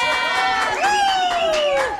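A studio audience cheers loudly to welcome female guests onto a show, with high-pitched shrieks and whoops rising over a busy wash of crowd noise and clapping, sustained throughout the short burst.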